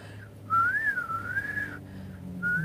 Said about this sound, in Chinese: 现在在这个半夜里吹口哨，